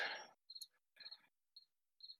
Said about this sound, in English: I hear your cricket.